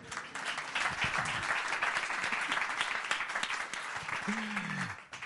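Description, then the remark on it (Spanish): A crowd claps steadily for several seconds, a dense wash of many hands from a sizable audience at the Ámbito Cultural of El Corte Inglés de Callao in Madrid, the first applause of the year for the host, with a brief voice-like tone rising near the end as the applause fades. “Y me acabo de ganar el primer aplauso del año, por cierto.”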